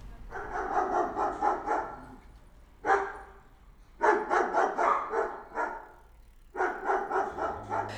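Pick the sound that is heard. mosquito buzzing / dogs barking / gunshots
dogs barking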